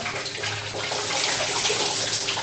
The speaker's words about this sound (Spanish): Y otro tema muy importante es que como yo vivo apenas a un metro sobre el nivel del mar, acá no hay mucha presión de agua, entonces el agua toca recolectarla como en una cubeta y bañarse pues e-, echándose agua con una cubeta más pequeñita